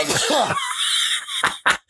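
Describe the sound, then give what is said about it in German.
A loud sneeze: a short voiced gasp rising into a long, hissing burst of breath, then two quick, sharp noisy puffs. No one speaks. “Wie kann man denn so oft niesen?”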